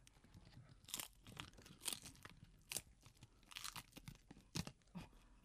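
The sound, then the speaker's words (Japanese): Crisp crunching of seasoned dried nori seaweed being chewed, a steady series of sharp crackly bites and munches, with no talking. “いい音がしてますよ。”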